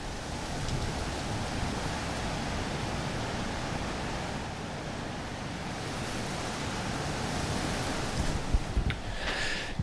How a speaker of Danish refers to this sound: ja, nu siger jeg noget på godt jysk, det, øh, det pisser ned. øhm, og derfor så har vi søgt tilflugt i en bygning, der lå på den her kirkegård, hvor vi stod lige før.